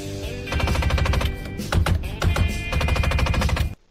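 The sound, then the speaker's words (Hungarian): Failing window actuators in a Japanese car rattle loudly in rapid, machine-gun-like bursts, a harsh clattering that runs for about three seconds before cutting off abruptly. “My window actuators are going out, so it sounds like I'm having a hell of a firefight in here.”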